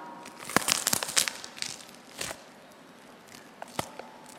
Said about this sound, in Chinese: 这个呢，是我这个冬瓜切开，大家都知道一个大冬瓜它切开都有糖声。真的冬瓜切开了，它是没有这个声音的。